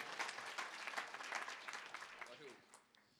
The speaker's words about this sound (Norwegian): Her kommer han. Ge honom en applaus.